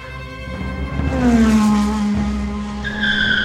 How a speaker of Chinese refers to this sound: 特搜队的警车很快地开往这里。深夜里，警车开进大门， 停在石阶前面。